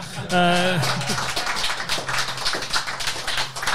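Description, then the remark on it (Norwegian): Sustained audience applause welcoming Stig Johansen, Bodø/Glimt's all-time top scorer, a dense crackle of many hands clapping at steady loudness for several seconds, with a brief tonal whoop or cheer rising over it at the start. “så får vi inn eh, en mann som også fortjener en applaus”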